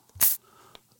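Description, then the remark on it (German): One short, sharp hiss, like a quick squirt from a water spray bottle, a sound effect meant to be applause, loud, followed by near-silence and a faint click. “Das klingt so wie diese Wasserspritzpistolen, mit denen man Katzen vertreibt.”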